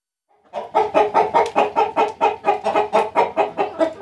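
Dense, continuous clucking from a flock of 30,000 hens in an ordinary floor-housing henhouse, a steady pulsing chorus of overlapping calls in a rapid rhythm, fairly loud, with no voices present.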